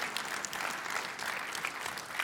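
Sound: audience clapping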